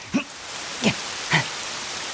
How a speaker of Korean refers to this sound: 어, 아, 뭐야? 아, 소나기야? 아 진짜. 빨리 가자.